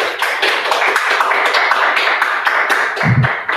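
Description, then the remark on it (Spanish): An audience at a religious service applauds for Jesus, with dense overlapping claps forming a bright, even wash of sound throughout. Near the end, a brief low rumble or shout rises beneath the clapping. “¿Cuántos le dan un aplauso a Jesús?”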